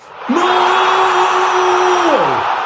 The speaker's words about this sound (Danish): råber de svenske tilskuere, som er på stadion, og begynder straks at danse og feste. Det er den hurtigste scoring nogensinde i en kamp mellem Danmark og Sverige, er der en af de andre tilskuere, som siger.